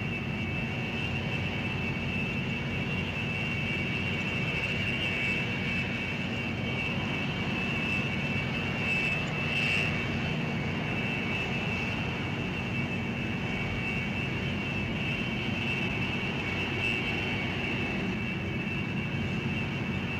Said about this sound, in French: Luc donne vie au Global et démarre les deux moteurs.